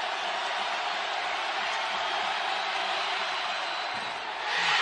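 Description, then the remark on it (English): A packed basketball arena crowd roars loudly and continuously after Jordan Miller misses a free throw, a dense wash of cheering and yelling that swells even louder in the final moment. “After Jordan Miller missed that free throw, the crowd's going nuts.”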